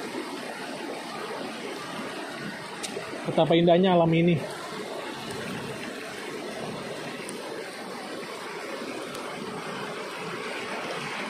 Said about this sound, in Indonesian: Ya, aku lagi ada di Kawah Merah. Kalau sobat pengembara tahu Curug Lewi Hijau, ya ini sebelum Curug Lewi Hijau. Ya, aku merindukan tempat bagaimana air mengalir seperti ini, kakiku sejuk.